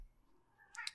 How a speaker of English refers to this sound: So I heard Hetty just now. I this is Hetty the cat has decided that it is time to scream and yell and uh, rub against my leg, even though I, I am scratching her currently and she is eaten. I apologize for the cat, everybody.